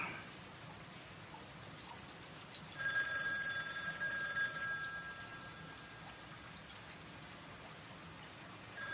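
A telephone rings once in a bright, trilling burst of about two seconds, set against a steady hiss of rain that continues before and after.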